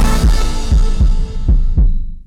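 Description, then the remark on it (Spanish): A heartbeat sound effect in a Banco BHD advertisement backing the Dominican team at the World Baseball Classic: deep, loud thumps in a lub-dub rhythm, about five beats in two seconds over a dense, sustained background wash that cuts off abruptly at the end. “un solo latido que se escucha en todo el mundo.”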